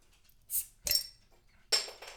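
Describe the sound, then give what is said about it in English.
A beer bottle is pried open with a Rapala bottle opener: a bright hiss, then two sharp metallic clinks against glass with a faint ringing tone, with no voices. “Uh, Thank you for the bottle opener, Rapala.”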